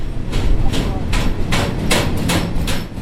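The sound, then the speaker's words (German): A freight train rolls into the railway station at Heppenheim, its wheels clacking over rail joints in a steady rhythm beneath a constant low rumble. “Statt einem Regionalexpress rollt ein Güterzug in den Heppenheimer Bahnhof.”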